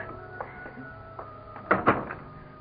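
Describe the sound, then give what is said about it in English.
A door is opened: a few faint clicks, then two sharp knocking thuds in quick succession as the latch and door move, over a low steady room hum. “Let me get the door.”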